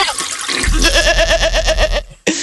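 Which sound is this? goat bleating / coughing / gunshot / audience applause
goat bleating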